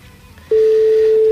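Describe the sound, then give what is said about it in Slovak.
A loud, steady single-pitched telephone call tone starts abruptly after a brief stretch of quiet background noise and holds unbroken to the end as nobody picks up the phone, with no one speaking. “Marian, vidíš, ty máš okru, To ani telefón nedvíha”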